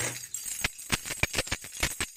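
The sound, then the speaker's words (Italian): Keys jingle in a quick, irregular series of bright metallic clinks, about eight or nine sharp rattles over a couple of seconds, with no talking. “Senza campanella. Eh, vabbè, ho le chiavi, dai.”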